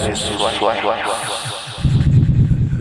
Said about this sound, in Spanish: Si no tenemos otras voces donde les podemos decir desde los aliens, podemos hablarles un poquito más con eco. Con eco.